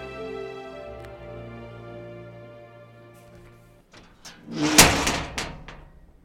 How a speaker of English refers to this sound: The creaking of the door disturbed her chain of memory. She shuddered.